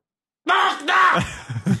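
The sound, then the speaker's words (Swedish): A person screams loudly, a harsh sustained cry lasting over a second that breaks into a couple of shorter rough vocal bursts at the end. “Eller så kanske du skulle kunna skrika den kritiken så hade det varit lite”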